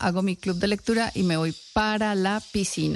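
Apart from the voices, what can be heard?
cicadas buzzing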